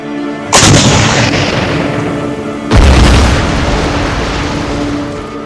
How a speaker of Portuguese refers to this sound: Fazendo um tiro de advertência que resultou no abandono da embarcação pelos seus tripulantes, antes do mesmo ser afundado por mais disparos de canhão.